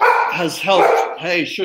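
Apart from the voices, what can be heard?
dog barking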